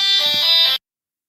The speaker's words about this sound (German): irgendein Paketbote, der jetzt hier gerade geklingelt hat.